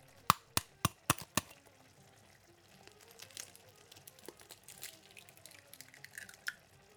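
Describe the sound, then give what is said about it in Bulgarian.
Five sharp, quick taps in a row as five eggs are cracked into small nests made in a pan of mixture simmering on low heat, followed by a soft, crackling sizzle of frying. No one talking. “И чуквам и последния ни продукт.”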